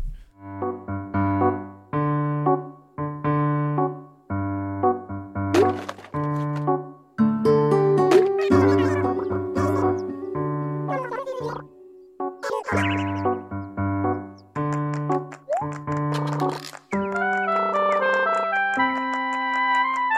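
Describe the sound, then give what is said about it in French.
A bright, bouncy tune from the video game Animal Crossing New Leaf plays on its own, with plucky chime-like melody notes over a steady bass line in short repeating phrases, shifting to a sustained, sparkling passage near the end. “Est-ce il y a deux jeux plus éloignés au sein de la ludothèque mondiale depuis 40 ans que Hotline Miami et Animal Crossing New Leaf La question est posée, on va écouter Animal Crossing.”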